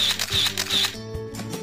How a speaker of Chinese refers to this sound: 一秒钟，你能按下快门，捕捉美丽的瞬间。